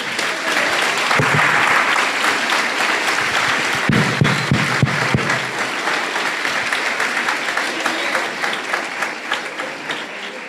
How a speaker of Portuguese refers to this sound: Vamos aplaudir as nossas queridas crianças.